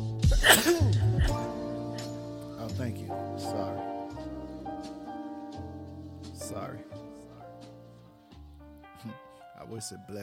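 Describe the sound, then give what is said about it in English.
A single sharp, loud sneeze bursts out near the start, then fades into steady background music with sustained tones. “bless you too, but obviously you are already blessed.”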